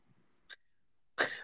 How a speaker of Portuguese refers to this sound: dá uma tossidinha, vocês... tá com um pigarrinho na garganta, vai.